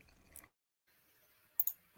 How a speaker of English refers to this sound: Just getting into moaning about his clicking pen, then, will not you? First, I was I was moaning about his clicking pens.